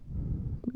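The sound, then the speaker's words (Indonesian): A short stomach rumble from hunger, a low gurgling growl that ends in a couple of higher squeaky bubbles, with no talking over it. “itu suara apa? Iya.”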